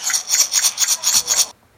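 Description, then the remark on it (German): Glass jars of raw coffee being handled in a museum, giving a quick series of about six rhythmic rasping, scraping strokes that stop abruptly, with no voices. “Das war das Geräusch der Gläser.”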